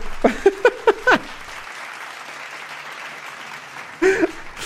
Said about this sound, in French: Donc les applaudit encore bien fort.